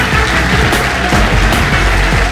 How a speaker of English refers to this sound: And um, yeah, will you please give a massive round of applause to Rob Llewellyn, ladies and gentlemen?